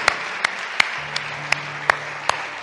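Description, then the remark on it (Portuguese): Audience applause given to Jesus Christ, a dense wash of clapping with sharp individual claps standing out roughly every third of a second, over a faint steady low hum. No one speaks. “E uma vez que está em seu lugar, por que não das um outro aplauso a Jesus Cristo?”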